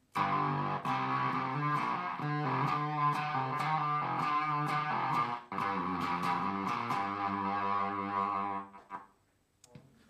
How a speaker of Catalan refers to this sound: Aquest és el Cockfight, que és d'electroharmònics. Sí, és guapo, eh? I llavors també té algunes funcions, aviam aquest és més cridaner, té un punt de, de guà, també.